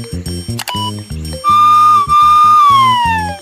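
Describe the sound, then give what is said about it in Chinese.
A fire truck siren wails in one long, steady high tone that slowly slides downward, sounding over a bouncy, rhythmic music backing. “啊，对，消防车能发出响声吗？”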